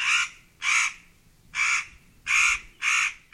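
A crow caws five times in harsh, rasping bursts with short irregular gaps, loud, with no other sounds around it.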